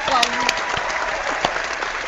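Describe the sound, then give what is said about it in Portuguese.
An applause sound effect: steady clapping from a crowd, a dense wash of clapping at even loudness with a few sharper claps standing out, lasting about two seconds. “Aplausos, aplausos”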